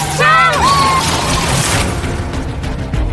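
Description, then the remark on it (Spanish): A car slams into something with a loud, violent crash, a brief shrill screech at the start giving way to a sustained roar of crunching, rumbling noise that stays loud throughout, as an oncoming car heads straight into the vehicle. “¡Mira ese coche! ¡Maldita sea! ¿Pero qué hace? ¡Frena, John! ¡Frena! ¡Directo, viene directo! ¡Agarraos fuerte!”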